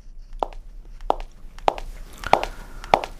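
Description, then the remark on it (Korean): Five sharp, clicking footsteps of a woman's high-heeled shoes on a hard floor, evenly paced at a steady walking rhythm, distinct with no voices. “네, 여자의 구두발자국 소리입니다.”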